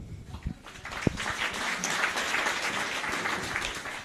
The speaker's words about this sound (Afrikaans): Nou ja, ek dink dit verdien weer 'n bietjie applous.